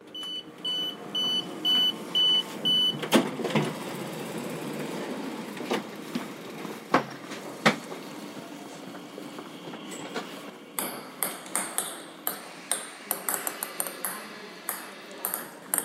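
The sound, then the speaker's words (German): Reverberant ambience of the station hall in Halle: a repeating electronic chime pings at the start, then rolling train noise, clattering wheels, sharp metallic clanks and murmuring voices echo through a large space. “Genau, und wir haben den Weg mit der S-Bahn genommen und sind dann äh, in Halle angekommen und haben dort äh, die Bahnhofshalle ähm, in Szene gesetzt, sozusagen.”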